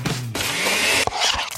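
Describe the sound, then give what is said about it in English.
A blender whirs loudly as a smoothie bowl is made fresh at Smoothie King, its motor whine rising steadily in pitch before cutting off briefly and roaring back in a second short burst. No one speaks. “Mmm, that's the sound of a smoothie bowl being made fresh, just for you.”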